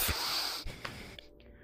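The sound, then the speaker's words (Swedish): Heavy, panicked breathing, fairly loud: a long harsh breathy rush followed by a few quick gasping bursts, with no talking. It sounds like a voice acting out the panting. “ja, Andas! Tungt”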